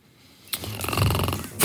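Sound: voice imitating snoring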